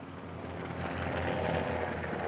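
A helicopter drones overhead with a steady low rotor rumble and broad roaring noise, swelling slightly louder midway through, with no voices heard.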